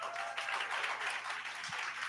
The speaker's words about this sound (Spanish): Les enviamos desde Cancún, Quintana Roo, México, un mensaje a todos ustedes, un abrazo y un aplauso de la congregación.